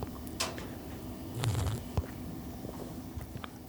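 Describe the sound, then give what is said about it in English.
First quiet sips of an iced pistachio coffee drink, the Pistachio Panda Monster: a few soft, brief slurping and swallowing noises with small clicks over low background hum, no talking. “First sips. First sip.”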